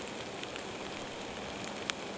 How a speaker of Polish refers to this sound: Nie za bardzo jest jak usiąść dzisiaj, bo mokro, ale kucnąć na chwilę można. Bliżej jest się wtedy liści na ziemi, a to na nich najlepiej słychać krople deszczu.